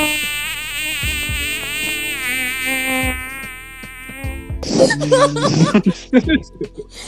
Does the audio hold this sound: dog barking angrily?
no